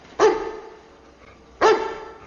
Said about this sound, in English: German Shepherd starts barking.